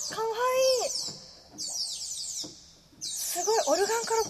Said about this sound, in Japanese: こちらのオルガンには、うん、えー、アクセサリーと呼ばれる変わったストップがあります、はい、まずチェレスターが丸々入っていますお他にもナイチンゲールといって鳥の鳴き声が出ます